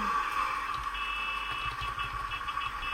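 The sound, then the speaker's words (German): A small car engine runs steadily but unevenly after the ignition is started, its low rumble stuttering in irregular pulses beneath a constant whining hum, fairly loud, with no voices. “Oh Gott, hört euch das mal an. Was für ein Ruckelding.”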